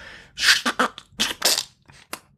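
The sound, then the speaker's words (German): A forceful sneeze breaks out in a cluster of sharp, breathy bursts, followed by a few quieter snorts and huffs, with no talking over it. “bauen möchte. Gesundheit.”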